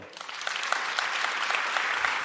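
An audience applauds steadily, a dense wash of many hands clapping at a fairly even, moderate loudness throughout, with no voices standing out.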